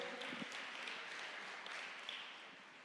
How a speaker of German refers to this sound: genau, klatschen erstmal. Danke.